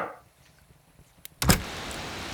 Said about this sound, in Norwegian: Det banker på døren.